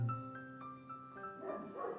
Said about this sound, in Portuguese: Meu cachorrinho que late junto comigo e que eu não posso impedi-lo no momento